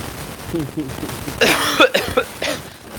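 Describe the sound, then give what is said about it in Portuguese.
A brief low murmur of voice gives way to a cluster of harsh, rasping coughs, two close together and then one more, loud and breathy against a quiet background. “Ai, desculpa a tosse aí, galera.”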